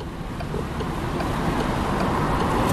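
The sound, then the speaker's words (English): A steady, low rumbling drone of road noise fills the inside of a car trying to merge onto unmoving, packed traffic in Belgium, constant and fairly loud throughout, with a faint hiss of air over it and no one speaking. “I'm going to be trying to merge onto completely unmoving, packed traffic that might be going in the wrong direction.”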